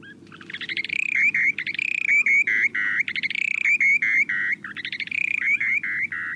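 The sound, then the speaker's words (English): A short-billed dowitcher's breeding song: loud, bubbling trills repeated in rapid rhythmic bursts, continuous, over a low, steady background rumble. The birds sing in flight about 150 feet above ground, gliding slowly earthward with beaks wide open; the song carries up to a quarter mile. “These calls might seem unimpressive, but take a listen to the short billed dowitcher's breeding songs.”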